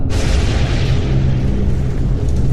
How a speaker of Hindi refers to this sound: बादल बहुत ही भयानक आवाज करते हुए गरज रहे थे